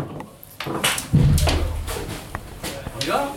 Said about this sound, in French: Voilà le bruit que vous entendez. C'est l'intérieur du cockpit du bateau comme un seul homme